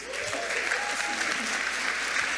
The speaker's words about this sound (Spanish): ¿Hay, maestros de escuela dominical aquí? Levante tu mano. Denles un aplauso.